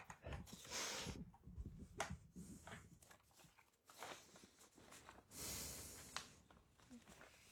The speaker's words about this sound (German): Ja, ich atme die ganze Zeit schon. Warum hört man mich so laut?